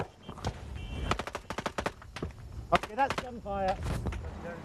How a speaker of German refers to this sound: Bereits am Morgen fuhr ein amerikanisches Fernsehteam nach Tikrit. An einem Kontrollpunkt nahe des Stadtzentrums fallen plötzlich Schüsse.